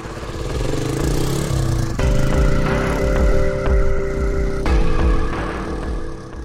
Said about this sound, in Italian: Tutto sembra andare liscio, ma ad un incrocio Bontate è costretto a fermarsi per un semaforo rosso. Ed è qui che una moto Honda con in sella due uomini lo affianca.